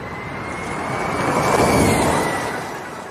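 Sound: race car driving past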